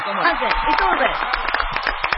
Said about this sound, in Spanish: Un aplauso. Un aplauso.